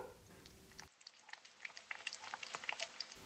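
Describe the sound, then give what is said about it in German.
Wet smacking and lapping of a male cat eating soft food mixed with lukewarm water into a stew, a quick irregular run of small squelchy clicks that grows a little louder toward the end, with no voices. “Ja, also wenn ich mir das so anschaue, also eine richtige Herausforderung für seine Kaumuskulatur ist ja dieses Essen nicht.”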